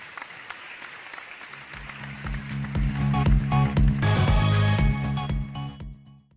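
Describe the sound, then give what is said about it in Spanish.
An audience breaks into applause from those who supported Quinteros's decision: scattered claps swell after a couple of seconds into a dense, loud clatter over a steady low rumble, then thin out toward the end. “Como ven desde estudios, en este aplauso se encuentran el bando de quienes justificaron la decisión de Quinteros.”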